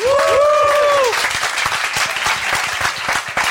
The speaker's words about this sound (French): Monsieur Vinvin, applaudissements